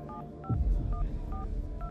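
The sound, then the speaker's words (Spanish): A phone number is dialed on a mobile phone keypad in a restaurant restroom at about nine at night: a quick series of five or six short electronic beeps at a steady pace, clear, with a low rumble of background noise underneath. “Tomó su celular, llamó por teléfono a alguien.”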